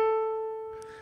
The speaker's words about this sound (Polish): O to, jaką częstotliwość powinien mieć dźwięk A, znajdujący się w czwartej oktawie na standardowym 88-klawiszowym pianinie, który według obecnego standardu 440 Hz brzmi tak.